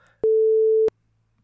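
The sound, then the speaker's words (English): A single loud, steady censor beep bleeping out the last syllable of a spoken joke, a flat mid-pitched tone lasting about two-thirds of a second with abrupt clicks at start and end, cutting in between faint murmurs of speech. “I have a feeling that last s- syllable got beeped out, but for the record, I got him right.”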